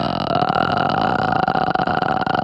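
A voice demonstrates vocal fry, the lowest human register, made with very relaxed vocal folds: a low, creaking rattle made of rapid irregular pulses held steadily for a couple of seconds, with no words spoken.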